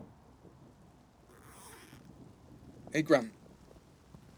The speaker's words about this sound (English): Mate, is that rain? Wait, uh, let's get home.